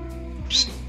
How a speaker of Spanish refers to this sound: me salió un, un, silbido. Un siseo. Un siseo